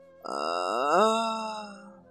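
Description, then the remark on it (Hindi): A voice imitates a long, drawn-out groan of pain from a badly wounded man lying on the ground, rising in pitch then sinking low and fading, sustained for about two seconds with no words. “कराहने की आवाज निकली अभी जान बाकी थी”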